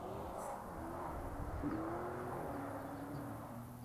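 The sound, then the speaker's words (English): A car goes by outside, a steady low engine rumble with a faint humming tone that swells briefly midway, with no one talking. “What a badass sound. It's a car.”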